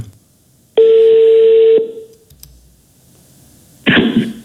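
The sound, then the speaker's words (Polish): Telephone dialing for a call to a Polish swimming coach: a loud, steady electronic tone holds for about a second, then after a short quiet gap a brief, harsh burst of noise follows. No one speaks. “Już za chwilę spróbuję zadzwonić”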